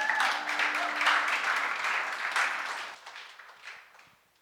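A crowd applauds with dense, crackling clapping that holds steady for a few seconds, then thins out and fades to scattered claps. A voice murmurs faintly beneath the early applause.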